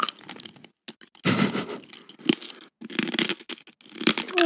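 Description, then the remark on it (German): Crunchy chewing of a hard mint chocolate candy, with rapid, irregular crackling bites and brief pauses, loud, with no talking. “Krass, du bist ja schnell mit Kauen.”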